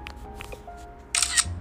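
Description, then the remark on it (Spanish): A phone's screenshot shutter sound: a short, bright double click-snap burst, crisp and mechanical, standing out clearly against a quiet background with faint low hum and small ticks before it. “Y yo voy a hacer exactamente lo mismo que hice hasta hace un momentito. Una captura de pantalla.”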